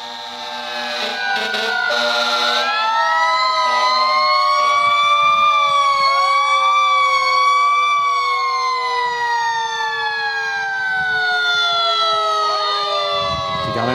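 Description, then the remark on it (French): Several fire truck sirens wail together, their rising and falling tones overlapping into a loud, continuous chorus that holds steady for the whole stretch, as firefighters salute the staff of the CHSLD La Salle during a COVID-19 outbreak there. “Les pompiers, donc, qui saluent le personnel là-bas.”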